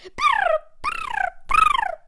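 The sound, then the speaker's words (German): A voice imitates a drunken seal with three drawn-out, warbling honks that slide downward in pitch, each separated by a short pause, loud with no other speech. “Okay, es hört sich an wie eine betrunkene Robbe, was ich hier mache.”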